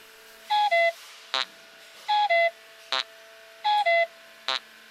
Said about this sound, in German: Diesen Klingelton habe ich selber komponiert und hergestellt.